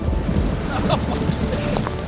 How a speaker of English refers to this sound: Some crazy storms rolled in. Almost got hit by lightning. Thought I was gonna die.